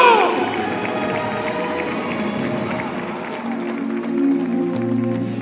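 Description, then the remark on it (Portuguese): A crowd applauds and cheers steadily for several seconds in praise of the Lord Jesus, a dense wash of clapping mixed with raised voices and shouts that holds at a fairly loud, even level throughout. “Pelo amor de Deus, quem acredita, dá glória a Deus e aplauda o Senhor Jesus que vai te dar testemunho testemunho.”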